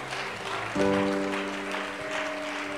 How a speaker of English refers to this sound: Come on, let's give the Lord a hand clap of thanksgiving today and praise.